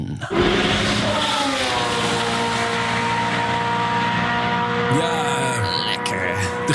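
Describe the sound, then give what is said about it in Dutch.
A vintage Formula 1 race car, a Fittipaldi F7 driven by Jumbo CEO Frits van Eert, roars loudly in a steady droning howl whose pitch bends downward near the end as the car sweeps past. “Jumbo-topman Frits van Eert rijdt mee in zijn Fittipaldi F7.”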